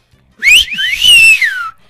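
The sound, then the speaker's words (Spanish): A loud human whistle to get someone's attention, aimed at a young man walking past: a short rising note followed by a longer tone that swoops up and then glides down, with no talking. “Dice, momento incómodo cuando pasé junto a un muchacho y le chiflé.”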